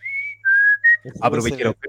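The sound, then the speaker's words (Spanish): A bright, clear whistle plays a short three-note call, a long high note sliding into two lower ones, the whistle of an ice cream cart vendor, followed right away by a voice speaking. “¿El tío silba o es una grabación del silbido?”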